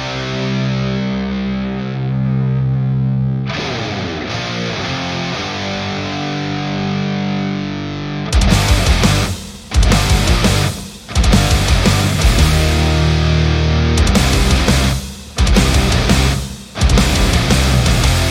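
A band's debut single, a rock song with heavily distorted guitars, plays loudly on the Demen Show on Radio Axe, starting with sustained droning chords before the full band crashes in with pounding drums, broken by a few short stops.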